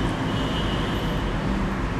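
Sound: road traffic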